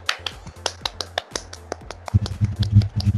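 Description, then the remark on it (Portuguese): A quick run of sharp hand claps, around a dozen crisp slaps in a fairly steady rhythm, then voices break in loudly as the clapping stops. “Palmas.”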